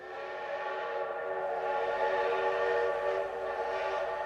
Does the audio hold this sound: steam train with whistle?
yes